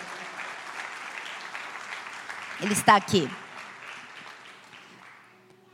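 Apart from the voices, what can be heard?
audience applause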